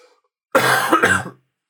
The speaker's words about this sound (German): war der Huster.